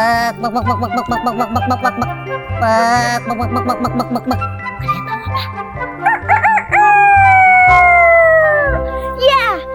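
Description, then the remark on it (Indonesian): Loud crowing and clucking of a rooster named Ciko, with one long drawn-out crow falling in pitch near the end, all over a bouncy rhythmic music track. “seekor ayam namanya Ciko.”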